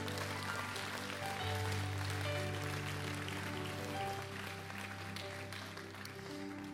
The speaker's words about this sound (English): Come on, clap your hands today to the Lord, church.